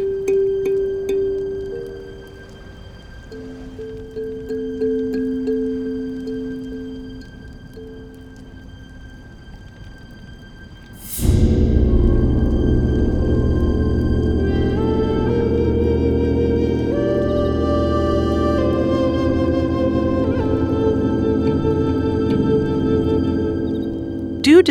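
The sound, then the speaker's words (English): Soothing kalimba music played to imitate the rolling sea, with no voices: soft, sustained, wavering tones drift alone at first, then a sudden swell opens into fuller, layered plucked notes that ring steadily over a low wash. “the sea's kind of rolling and i wanted to kind of imitate that with this kalimba and it is a kind of it's a soothing sound but it also you know it can be a little ambiguous and we can uh, kind of yeah.”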